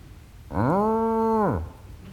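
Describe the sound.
A single drawn-out moo from a cow, rising in pitch, holding steady for about a second, then sliding down and fading, loud with quiet before and after.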